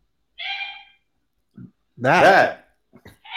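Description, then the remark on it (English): A small, old dog gives a single sharp, high-pitched yap near the start, followed by a short burst of a man's voice speaking over a quiet background. “You got your dog making my dog bark.”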